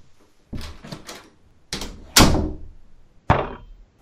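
A door bangs and rattles several times in quick succession, ending in a loud, sharp slam, with no voices.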